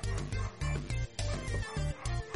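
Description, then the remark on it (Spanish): A cat named Cesarito meows in a rapid run of short, rhythmic bursts, not loud, with no one talking over it. “¡Ay, cosa Él es el único gato que da besos en el mundo.”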